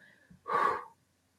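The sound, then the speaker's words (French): A single deep breath drawn in during a mindfulness exercise, fairly loud, a breathy rush lasting about half a second before quiet returns. “On s'observe, on prend une respiration.”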